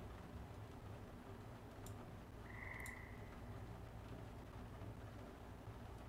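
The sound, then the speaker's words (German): Low, dense croaking that sounds like frogs fills the scene as a steady rumbling chorus, with a brief higher chirp rising above it midway. No one speaks. “Und Mary sieht das von oben, hört aber auch schon wieder ein paar froschähnliche Dinge.”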